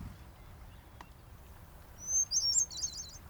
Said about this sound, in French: Mais il y en a encore un qui retentit régulièrement dans les forêts un chant délicieusement étrange, à la fois ordinaire et extraordinaire. Il s'agit du chant de la grive solitaire, un turdidé commun dans cette partie de l'hémisphère nord.